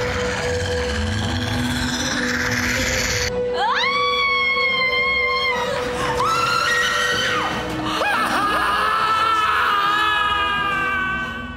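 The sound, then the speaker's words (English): A group of people lets out loud, sustained screams together, their voices overlapping and wavering in pitch for several seconds, preceded by a brief stretch of dense, noisy rumble. “That was a collective yeah. scream of.”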